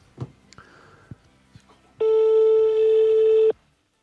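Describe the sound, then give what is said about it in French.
A telephone ringback tone on an outgoing call to a furniture and bedding shop: one loud, steady electronic tone lasting about a second and a half, preceded by a few faint clicks and handling noises on the line. “Mais non, parce que ça continue de sonner après.”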